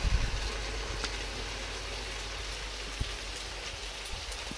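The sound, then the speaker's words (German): Meat and onions, both nicely browned, sizzle steadily in a hot pan, a continuous hiss and crackle with a few sharper pops scattered throughout, and no voices. “So, die Zwiebeln haben jetzt wunderschön Farbe. Das Fleisch auch, ihr hört das, rutschelt schön.”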